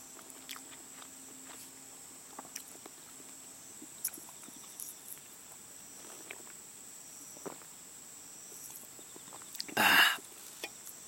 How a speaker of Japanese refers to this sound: ちょっと焼き鳥食べるねうんうわおいしいしょっぱい